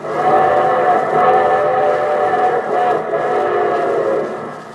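A steam train whistle blows a loud, sustained chord over a steady chugging rumble of the locomotive, holding for several seconds before tapering slightly near the end, introducing the Railroad Hour broadcast's show train from Hollywood.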